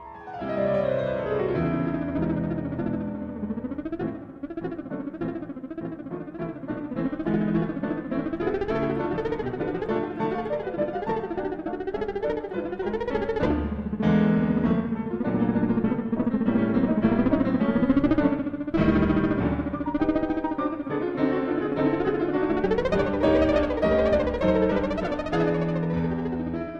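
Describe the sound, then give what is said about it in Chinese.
A theremin plays the fast, busy melody of 'The Bumblebee' (Flight of the Bumblebee), its wavering electronic tone darting up and down with quick choppy notes and occasional glides, steady and loud throughout with no talking. “所听到的，包括模式当中的同学一起来聆听的这一首是叫做《 大黄蜂》， 有没有觉得很神奇啊？”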